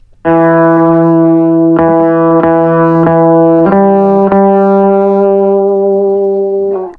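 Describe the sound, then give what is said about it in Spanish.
A distorted electric guitar plays the second guitar part of a multi-guitar arrangement, mostly sounding the fifths of the first part's notes: sustained low notes alone, changing pitch a few times before settling into a held two-note chord that rings out to the end. “Ahí va la guitarra 2.”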